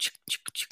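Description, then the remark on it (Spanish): A voice imitates the crinkly sound of a package being opened in an unboxing video, with four quick, breathy hissing bursts, fairly quiet, each separated by a brief pause. “Ay, me encanta ver los unboxing, pero sin audio, como con un micrófono, porque a mí me encanta la CMR, que abran el paquete y suene como chuc,”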